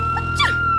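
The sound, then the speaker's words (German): A single quick sneeze, a sharp, slightly squeaky burst with a falling pitch, over a steady low hum. No one speaks. “Gesundheit.”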